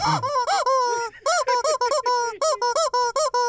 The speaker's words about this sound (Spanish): ya, calmen con ustedes ese pájaro, por favor, ya, tranquilo. Ya, ya, ya, ya, por favor. Este, mira, DJ, llévate este pájaro.